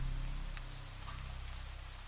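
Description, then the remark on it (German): Steady cold rain falls on a muddy cobblestone street, a continuous hiss with a low rumble underneath and a few sharper drips breaking through. No voices, fairly soft and even throughout. “Kalter Regen spülte meinen nackten Körper vom Beutel frei.”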